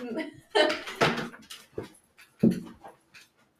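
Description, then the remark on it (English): A female dog pants and whimpers in the morning in short, uneven bursts of breathy huffs, with a brief higher whine near the end before it fades quiet. “I love to smell dog breath in the morning.”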